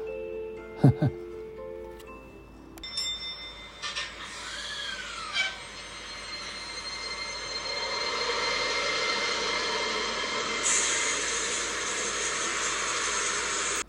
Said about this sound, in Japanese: また外からチンチンというあの路面電車の走り出す音が聞こえてきたもうちっとあれに乗っていたかったな恨めしそうに窓から遠ざかる都電の姿を見つめると